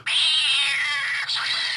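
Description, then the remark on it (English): A cat sound effect: a loud, sustained screech lasting nearly two seconds, with a brief dip near the end before the harsh yowl resumes, heard alone with no talking. “it has a screeching yeah. like you stepped on its tail”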